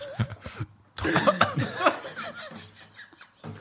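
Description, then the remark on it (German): A person coughs in several harsh, sputtering bursts while choking on a Jaffa Cake eaten with their nose held shut, fairly loud, with a few breathy laugh-like gasps mixed in and a couple of short coughs trailing off at the end. “Ey, bevor du erstickst, das ist es nicht wert.”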